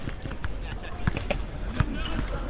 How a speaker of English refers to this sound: So you can hear the sound of the basketball to my left.